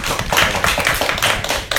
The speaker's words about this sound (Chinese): 就是我们现场是有观众的。我们现场观众跟我们收音机的听众打个招呼好不好？我们来鼓个掌吧，好不好？